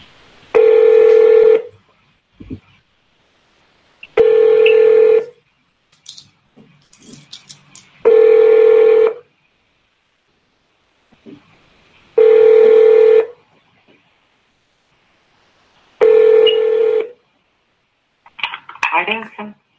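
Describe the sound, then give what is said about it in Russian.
An outgoing call's ringback tone on a call to company M: five steady, mid-pitched buzzing tones, each over a second long, repeating evenly every few seconds, with faint clicks and clatter in the gaps and a brief rustle at the end. “Достаточно тихий звонок, ну попробуем сейчас.”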